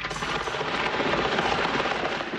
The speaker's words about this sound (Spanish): El aleteo de una paloma